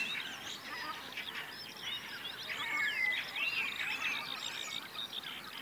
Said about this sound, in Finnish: Kuunnellaan lisää näitä ääniä, että mitä, mitä täältä nyt erottuu. Mustarastas tulee edelleen hienosti.